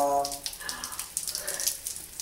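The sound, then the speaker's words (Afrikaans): Shower water sprays on a parrot in a steady, soft hissing patter, fairly quiet, with a brief tonal squeak near the start and no talking. “Carolus, ek hoor jy van stort. Kom, gaan ons stort.”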